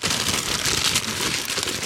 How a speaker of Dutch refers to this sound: Koffiebroodjes. stukje Koffiebroodjes. Heerlijk. Papieren zakje.